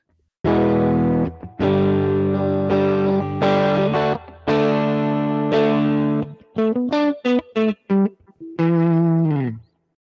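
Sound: guitar through reverb pedal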